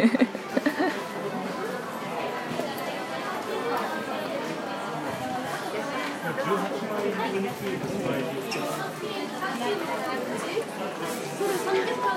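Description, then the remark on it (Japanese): A busy indoor crowd in the basement food hall of the Odakyu department store in Shinjuku murmurs steadily, many overlapping voices blending into a dense babble with footsteps and occasional clatter, filling the space evenly at a moderate level throughout. “今は小田急新宿小田急百貨店の地下食品街に来ています”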